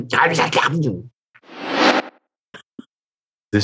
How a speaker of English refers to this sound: is the sound of drinking a cold one. that is awful. That's a terrible collection of sounds.